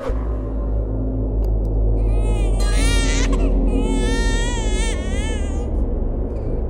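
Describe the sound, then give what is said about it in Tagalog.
A baby cries loudly in sustained, wavering wails, with two long crying bursts over a low background rumble; no one speaks. “Ang baby ni Harleen.”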